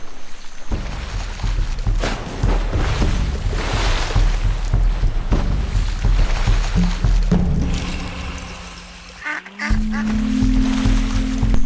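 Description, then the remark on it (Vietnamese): A duck in fairly deep water quacks repeatedly amid busy splashing and rustling as a leopard cat attacks it without success, loud, with a low sustained tone coming in near the end. “Thần may mắn đã đứng về phía con vịt”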